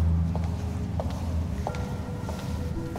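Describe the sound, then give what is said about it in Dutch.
Footsteps inside a room of wing 19 of Z33, one of an ensemble of highly diversified chambers for sound, about five evenly spaced steps at a steady walking pace, over a constant low background hum with no talking. “In elke kamer klinken onze voetstappen anders.”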